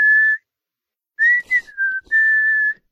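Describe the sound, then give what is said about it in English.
A person whistles a short melodic phrase, clear, with sustained pure notes broken by a brief pause and a few quick note changes, no talking. “remember we used to walk around work whistling?”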